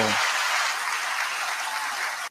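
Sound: applause sound effect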